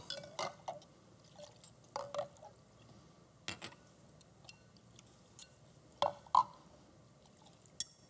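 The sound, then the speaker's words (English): Someone cleans the inside of a cup with a lot of soap: wet scrubbing and dripping, with a few sharp glassy clinks scattered irregularly over a quiet background. No one speaks. “He gets inside and just starts cleaning it up.”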